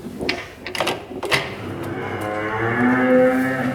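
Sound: cow mooing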